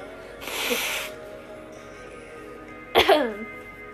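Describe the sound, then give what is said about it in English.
Coughing and throat clearing with no talking, from a burning throat: a long, breathy, rasping burst, a pause, then a sharp cough that trails into a gravelly voiced clearing of the throat. “Tell me why I had a gut feeling not to drink all my water and I started coughing.”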